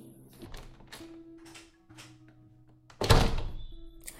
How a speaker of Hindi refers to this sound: अचानक दरवाजा बंद होने की आवाज आई तो अतीत की यादों का सिलसिला टूटा मैं बाहर आई तो देखा कि मम्मी दरवाज़ा बंद कर रही थी